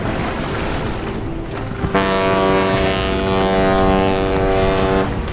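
A ship at sea with steady rushing wind, then a loud, sustained low ship's horn blast sounds for about three seconds over the wind before cutting off.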